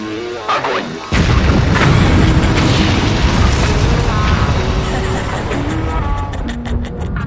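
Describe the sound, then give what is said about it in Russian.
After a countdown, a sudden, massive nuclear explosion boom bursts in after a second of quieter tones, then rolls on as a loud, heavy, sustained rumble that slowly thins out over several seconds. “Красные кнопки уже сгорают от нетерпения, и ядерные боеголовки уже скалятся, наведенные на цели.”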